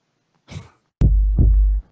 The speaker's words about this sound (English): you hear that? Yep. All right. It's a heartbeat.